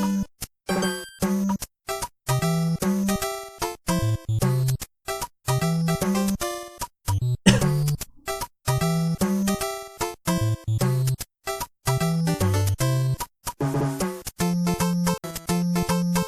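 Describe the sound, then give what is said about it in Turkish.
Bright 8-bit chiptune melody from 1988, made on the five-channel sound of the Nintendo Entertainment System, with buzzy square-wave tones, a bouncing bassline and crisp white-noise percussion, playing continuously and fairly loud with short rhythmic gaps and no voices. “Ee, bununla yapılmış, yeni teknolojiyle yapılmış hepimizin hatırlayacağı, seveceği bir örnek dinletmek istiyorum size.”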